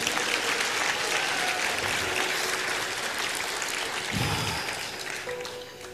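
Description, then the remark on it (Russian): Sustained applause from an audience for a winner, a dense steady clapping that carries on throughout and tapers slightly toward the end. “Давайте аплодисменты победителю нашему.”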